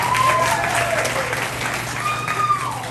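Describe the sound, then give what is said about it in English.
Steady audience applause at a club for a performer who has just finished singing, a dense wash of many hands clapping at an even, sustained level throughout, with faint whoops or cheers rising above it. “Come on, keep clapping”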